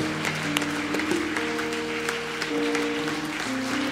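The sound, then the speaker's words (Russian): An audience applauds steadily for about four seconds, a dense, even wash of many hands clapping, with sustained musical tones holding underneath. “Дайте им аплодисменты.”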